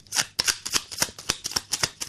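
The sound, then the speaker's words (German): A stack of 14 plastic credit cards rubbing and clacking together in quick, uneven strokes, about nine bright scraping bursts in two seconds, with no voices. “Nein, das sind 14 Kreditkarten.”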